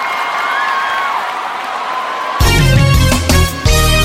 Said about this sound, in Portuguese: Valeu, gente! Tchau, gente! Valeu, uma salva de palmas aí, gente!